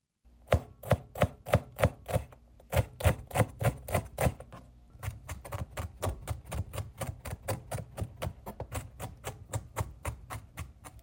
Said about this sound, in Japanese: 番組を聞きながら楽しいキッチンミッションキッチンミッション、えー、野菜を刻もうと、え聞いてみましょう